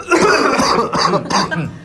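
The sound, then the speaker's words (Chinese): Several people cough loudly together on a count of three, two, one, a dense run of overlapping rough coughs and throat-clearing that lasts under two seconds before trailing off. “我们来一三二一起咳好不好？”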